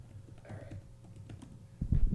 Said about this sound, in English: All right, I'm typing it in. Here we go. Give me names for a breakfast sushi restaurant.